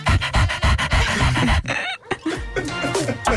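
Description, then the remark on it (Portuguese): A voice imitates a man's dog reacting to a swear word shouted loudly: loud, quick rhythmic breathy pants, then a brief high, wavering whine before the panting resumes with whimpery tones. “No que toca a reações giras a esta situação, temos a destacar a do meu filho, que ficou genuinamente entusiasmado por ouvir um palavrão dito isto em voz tão alta, e a do cão do senhor que disse, e passa a citar.”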